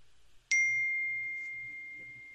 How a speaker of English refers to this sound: that would be me getting text messages on one of my computers okay. that I forgot to turn off the notifications.